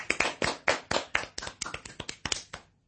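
A short burst of hand clapping, about a dozen sharp claps in a quick, slightly uneven rhythm, loud and bright, then stopping abruptly. No one speaks.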